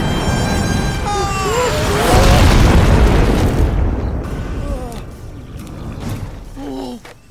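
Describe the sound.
Fireballs spat out by a volcano crash and explode in a loud, rumbling boom that swells midway and slowly fades, while voices cry out and yelp over the din.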